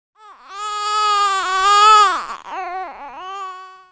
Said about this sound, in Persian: صدا نشونه آغازه نوزادی که به دنیا میاد روح تازه ای که پاش روی این کره خاکی میذاره و تبدیل میشه به عزیز دردونه مامان باباش